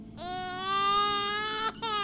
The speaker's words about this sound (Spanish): Antes de irme al cuarto volví a mirar el patio por una de las ventanas y estaba la criatura con la piel roja caminando llorando de un lado para otro por todo el terreno trasero.